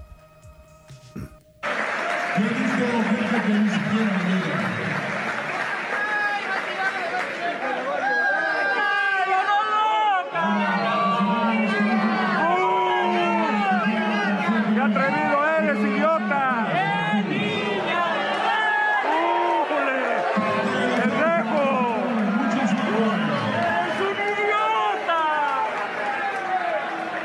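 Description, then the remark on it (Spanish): A large baseball stadium crowd in Veracruz boos loudly and steadily while shrill whistles rise and fall throughout, jeering the governor of Veracruz as he opens the Águila de Veracruz season. A continuous wave of jeering swells in long, low bursts for nearly half a minute. “El primer gatelazo, el gobernador de Veracruz, el famosísimo Huitlagua ah, García el Inefable se llevó una buena rechifla porque se atrevió a ir a un estadio de béisbol a inaugurar la temporada del Águila de Veracruz.”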